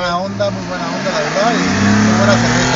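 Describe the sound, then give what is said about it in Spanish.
Car engine and road noise hum steadily beneath people talking inside a moving vehicle, the engine's pitch climbing gradually as it accelerates. “sí, y disculpen el ruido porque pues, andamos al volante.”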